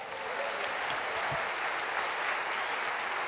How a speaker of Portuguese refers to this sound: Aplaude aí, ô cara.